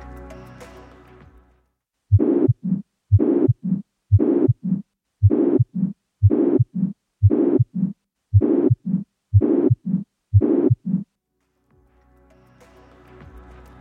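A heart recording of a pansystolic murmur from a ventricular septal defect, heard at the left sternal border in the fourth intercostal space: about ten steady beats, each carrying a loud, harsh whooshing filling the space between the heart sounds. Someone talks briefly before and after.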